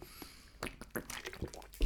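Quiet wet slurps and small swallowing sounds as someone sips water, a few short bursts with a sharp breath at the end; no talking.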